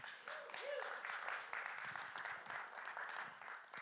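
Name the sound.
audience clapping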